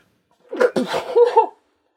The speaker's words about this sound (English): I sneezed.